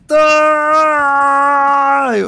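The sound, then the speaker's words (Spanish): A single loud shouted scream of "Libertad!" from one voice, held steady for about two seconds at full strength and distorting, then dropping in pitch as it cuts off. “No puedo gritar más fuerte porque si no los vecinos me demandan, weón.”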